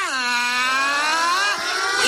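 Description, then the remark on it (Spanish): A voice imitates a car's ignition and engine revving before shifting into first gear, a steady, buzzing rumble held loud for about two seconds with a slight dip and rise in pitch near the end. “Contacto. Ran, ran, ran, ran. ran. Ponemos primera”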